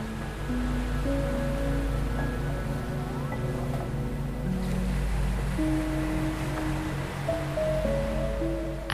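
A continuous rush of Atlantic Ocean waves washing onto a shore, steady and moderately loud, with soft sustained musical tones drifting over the surf and no voices.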